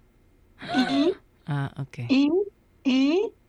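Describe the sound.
A person vocally imitates inspiratory stridor, the unusual high-pitched sound a child makes when breathing in, producing four short, strained, high-pitched breathy sounds with brief pauses between them, fairly loud.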